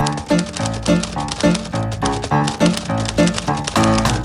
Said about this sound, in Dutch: Eenmaal getypt is ook geprint. Wie niet het ene na het andere vel papier wil weggooien, moet eerst nadenken voordat hij iets schrijft op een schrijfmachine.